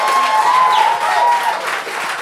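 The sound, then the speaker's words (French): Loud, steady applause from an enthusiastic audience welcoming Olivier Niquette fills the whole stretch, a dense crackle of many hands, with a long sustained whistle from the university rector sliding slightly downward over it in the first half. “Le public est enthousiaste, même le recteur de l'université a sifflé.”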